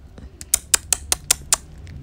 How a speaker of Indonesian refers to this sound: Dia seperti mendengar suara cicak.